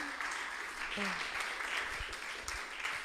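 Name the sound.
audience applauding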